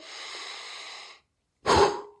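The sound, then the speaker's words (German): A long, airy inhale lasting about a second, a brief pause, then a forceful, louder exhale with a breathy rush, with no talking: a deliberately exaggerated deep breath in and out during a guided breathing exercise. “Also atmet mal ganz tief ein. Und übertreibt das ruhig so ein bisschen mit der Atmung.”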